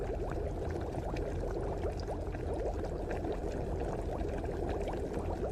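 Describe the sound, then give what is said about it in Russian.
Water pours steadily into a steamer, to be brought to a boil, for several seconds, a continuous splashing gush with bubbly gurgles whose pitch creeps upward as it fills. No one speaks. “Добавьте туда воду и дайте ей закипеть.”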